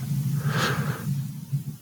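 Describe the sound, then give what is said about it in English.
A steady low air conditioner hum, picked up by a microphone boosted to high gain with a Cloudlifter Z, drones throughout, with a brief breathy hiss swelling and fading near the start; no one speaks. “I don't know if you can hear the uh, air conditioner”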